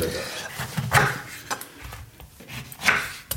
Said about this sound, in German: Orangen haben wir hier. Was sind das für Orangen? Das Bio-Orangen? Ja, natürlich sind es Bio-Orangen. Hier hört man, wie wir die Orangen aufschneiden. So. das riecht fantastisch.